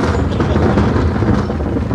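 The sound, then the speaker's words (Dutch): A deep, steady rumble of thunder rolls on for the whole two seconds, loud and heavy in the low end with no clear breaks and no voices. “Pauze, omdat, eh, voor het onweer.”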